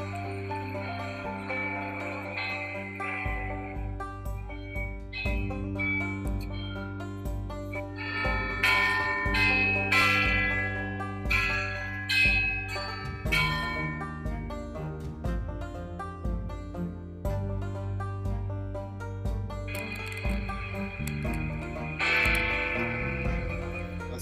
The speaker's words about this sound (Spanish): Campanadas desde Londres.